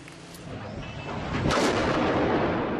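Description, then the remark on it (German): Gunfire and heavy blasts from bombing in Aleppo, with bombs falling on neighbourhoods where rebels are dug in. The sounds rumble through a dense, noisy wash, with a sharp burst and a louder, sustained roar partway through and no one speaking. “Bomben auf Viertel, in denen die Rebellen sich eingegraben haben.”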